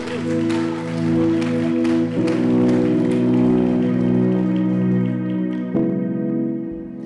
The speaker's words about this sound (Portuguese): Aplauda o nome santo do Senhor e pelo amor de Deus.